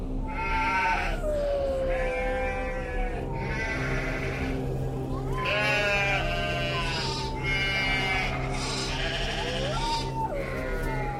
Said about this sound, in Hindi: अभी धीरू को सोए तकरीबन एक घंटा ही हुआ था जब कुत्तों के रोने की और बकरियों के जोर जोर से मिमियाने की आवाज से उसकी नींद खुली